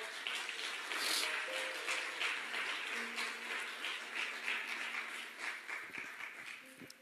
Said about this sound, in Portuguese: Você pode aplaudir o Senhor de glória.